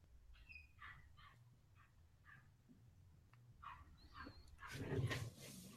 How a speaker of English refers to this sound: Oh no, it's a yapping dog alien.